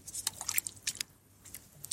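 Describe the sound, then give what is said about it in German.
Wet, squelching footsteps of someone walking through the soft mud of a tidal mudflat (Watt): a string of irregular, crackly sucking squishes with slight splashing, fairly faint, with a short lull partway through and no voices. “Ich habe ein bisschen Watt und durchs Watt laufen Atmo aufgenommen.”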